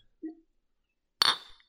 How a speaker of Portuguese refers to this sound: Eu vou ter que é, aí, eu vou até fazer um brinde com você.